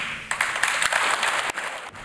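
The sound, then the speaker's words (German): A large audience at a climate conference in the United Arab Emirates applauds steadily, a dense wash of many hands clapping at once, fairly loud and sustained throughout with brief swells, and no voices are heard over it. “Nicht alle mögen klatschen.”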